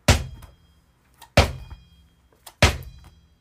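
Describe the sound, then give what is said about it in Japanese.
A Molten rubber sports ball bounces three times on a wooden flooring floor, each impact a loud, deep thunk with a short ringing decay, evenly spaced about 1.3 seconds apart, with faint handling sounds between. “ちょっとこれ、あの、どんな感じがちょっとこれ音でわかるかな今手元にモルテンとその会社のボールがあるんですけど、モルテンこんな感じの音ですね。”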